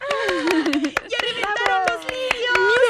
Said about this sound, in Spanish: Y después, cuando llegaron los niños, batieron palmas exclamando